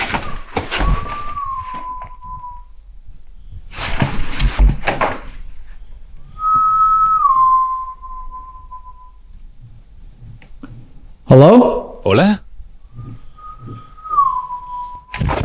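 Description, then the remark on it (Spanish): Someone whistles a short two-note falling phrase three times, clear, with heavy thumps and knocks between the phrases and a brief spoken greeting. “Oye, hay pasos detrás de mí y alguien silbando enfrente.”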